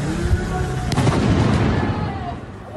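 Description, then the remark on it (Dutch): Fireworks bang repeatedly over a dense, roaring wash of noise in Vlissingen, where the town hall was heavily damaged by fireworks, with a couple of sharper cracks standing out near the middle. The blasts sound loud, and crowd voices may murmur beneath. “In Vlissingen is het gemeentehuis zwaar beschadigd door vuurwerk.”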